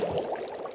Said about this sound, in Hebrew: זה רעש של שמן מבעבע. אנחנו צריכים למצוא סופגניה או לביבה, משהו שמטוגן בהרבה שמן.